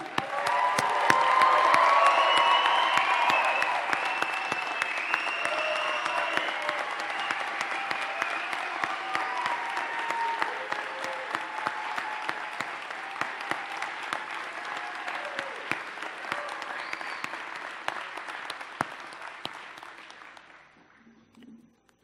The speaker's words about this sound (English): All right, I think I think just one more round of applause for the graduates of 2018.